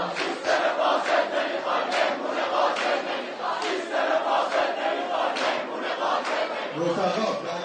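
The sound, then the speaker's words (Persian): A crowd of university students chants protest slogans in unison at the visiting government spokesman, including "We don't want a corrupt system" and "Death to the Basiji"; loud and sustained, with rhythmic rising and falling shouts blending into a dense roar of many voices throughout. “وقتی سخنگوی دولت به دانشگاه آمد دانشجویان خطاب به او شعار دادند سیستم فاسد نمیخوایم مهمون قاتل نمیخوایم سخنگو برو گم شو قاتل برو گم شو آنها همچنین شعار مرگ بر بسیجی را فریاد زدند”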